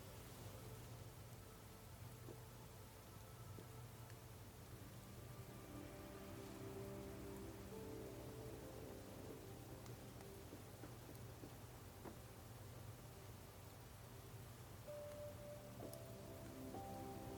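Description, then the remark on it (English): Steady rain patters without pause over a deep, rolling low rumble, with faint drawn-out creaks surfacing now and then, as if heard from inside a wooden hull on a stormy night. “you have an impression of being inside a wooden ship sailing through the sea on a stormy night.”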